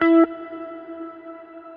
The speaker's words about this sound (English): the reverb comes really late and it has two voices, added voices, an octave higher. This means voice one pitch and voice two pitch. So this is uh, set to 12.